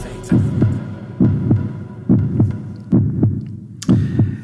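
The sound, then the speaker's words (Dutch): A deep, thumping heartbeat-like sound effect, not a real heartbeat, pulses in steady double beats, about five throbs in quick succession, loud over a low background hum with no voices. “Het is niet uw hartslag die u hoort”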